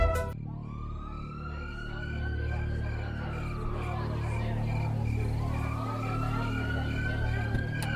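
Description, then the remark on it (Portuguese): A police siren wails in long, slow rising and falling sweeps, loud, over a steady low rumble of idling vehicles, from a cluster of police cars whose siren lights light up a whole residential street. “caminhou em direção ao amontoado de viaturas que iluminavam toda a rua com as luzes das sirenes.”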